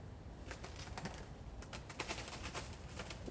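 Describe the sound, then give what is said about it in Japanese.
A burst of fluttering wingbeats, soft rapid flaps as many birds take off and leave the nest, with a low background rumble and no talking. “おすごなんかめっちゃ鳥がいました巣立っていきました”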